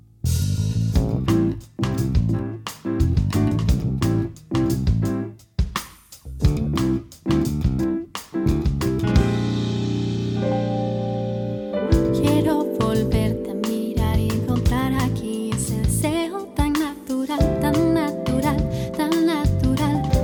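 A band plays a song loud, with punchy, steady drums and full instrumentation, easing briefly into a sustained, swelling chord before the whole group kicks back in.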